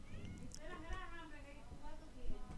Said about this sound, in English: because my cat is meowing,